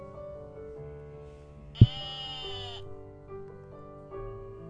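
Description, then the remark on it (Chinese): A single wavering sheep-like bleat, given as the call of an antelope with pointed horns, lasting about a second, starting with a sharp knock, heard over a steady low humming background. “有一只有尖，只有尖尖的角，小小的耳朵的动物，会觉得它是梅花鹿，其实不是，它是尖尖的角的羚羊，咩咩。”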